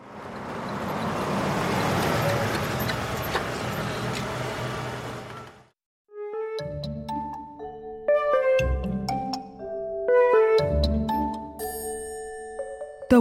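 A black car's steady engine and road rumble rolls in, then cuts off as it comes to a stop in front of an automatic door, followed by a run of bright, ringing chime tones with no one speaking.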